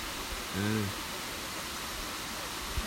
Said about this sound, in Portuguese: Bom desse, desse gravador aí é que tá perto da água. E barulho de água nunca enjoa. Barulho de água nunca enjoa.